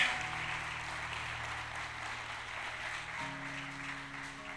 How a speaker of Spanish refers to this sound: Dale palmas fuertes y alabanza.